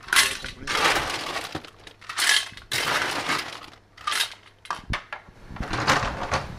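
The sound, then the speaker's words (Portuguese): Ice cubes clatter and crunch into a cocktail glass in several fairly loud bursts with short pauses between them, with no one speaking, as a barman at a bar counter prepares a cold cocktail with lots of ice. “Um cocktail tem que ser sempre, ou quase sempre, acompanhado de gelo.”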